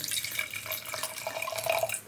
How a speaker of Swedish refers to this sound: Ska vi hälla vin nummer två?